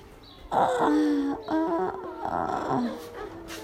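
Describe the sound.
A person imitates the small dog Mía whining: a few fairly loud, drawn-out nasal whimpers that rise and fall in pitch, with brief breaks between them.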